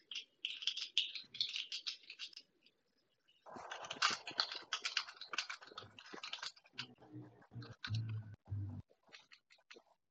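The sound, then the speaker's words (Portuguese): Rapid clicking of keys on a computer keyboard, fairly loud, as a note is typed, in two long bursts with a short pause between, some heavier thumps toward the end. “Deixa eu escrever para você.”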